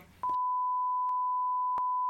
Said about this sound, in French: Ouais, ouais je mettrai un bip. Je ferai un bip comme tu veux.